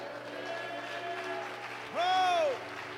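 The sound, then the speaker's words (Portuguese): An audience applauds in praise of the Lord in a steady, dense wash of clapping. Near the end a louder, tonal cry briefly swells over it, rising and then falling in pitch. “Diga glória a Deus e aplauda o Senhor.”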